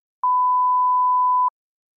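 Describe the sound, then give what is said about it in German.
A single steady censor bleep over an Instagram username, a flat high-pitched tone lasting a little over a second, loud and unbroken, with silence on either side and no voices. “Nee, ich kann ihn sagen, dann, man müsste ihn vielleicht nur piepen.”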